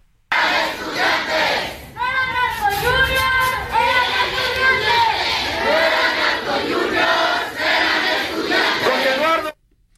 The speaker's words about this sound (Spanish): Cerca de 3.000 personas, Salvador, y entre ellos su mayoría estudiantes de medicina. La mayoría de ellos, los asesinados, eran estudiantes de medicina y así se escuchan en estos momentos la protesta allá en Celaya.